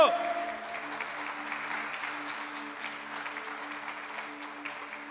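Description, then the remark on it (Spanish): An audience claps in a sustained, dense wash of applause, steady in loudness throughout, with a low sustained hum or tone underneath. “Dale un aplauso”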